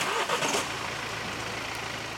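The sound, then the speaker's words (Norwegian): A car engine turns over with a brief rough burst, then settles into a steady, low, even idle hum that continues to the end, as the car is started for a driving lesson before driving a route. No one speaks. “Så skal vi kjøre rute deretter.”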